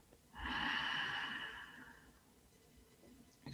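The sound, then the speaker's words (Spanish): A deep, airy breath drawn in, strong and hissing at first, then easing off into a long, fading exhale with no talking. “expandimos, exhalamos y agradecemos estar vivos, poder respirar”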